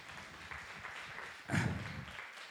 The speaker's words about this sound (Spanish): Listo, muchas gracias. Un aplauso para los actores.